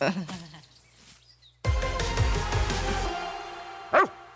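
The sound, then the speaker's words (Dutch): A dog gives a short, sharp bark after a stretch of loud, rough noisy commotion, with quieter scuffling sounds beforehand and no one speaking. “Hier, hou jij die hond maar even vast.”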